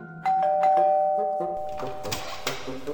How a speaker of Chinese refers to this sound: 然后又弯进了一条人烟稀少的小巷，他们停在一间两层楼的楼房，然后按了门铃。